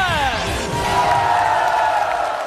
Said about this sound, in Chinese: 借着各位热情的掌声，一起来欢迎一下我们节目的非常重量级的嘉宾